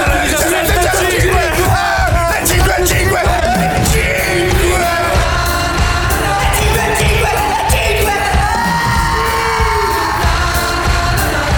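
Loud shouting runs nonstop over a dense, busy backing, with several voices yelling energetically and occasional bangs throughout, in a raucous jingle from a show's first season.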